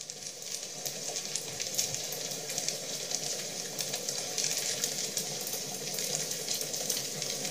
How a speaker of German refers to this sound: Da schlugen die Flammen prasselnd empor und er freute sich.